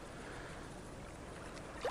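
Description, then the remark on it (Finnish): Gentle, steady wash of water, soft and continuous, as small waves with a few bubbles roll onto a shallow sandy beach, with a slight swell near the end. No voices. “Luulee kuulevansa, kun näkee, että aallot tulee rantaa, vähän on kuplia vedessä ja tulee tämmöiselle matalalle hiekkarannalle.”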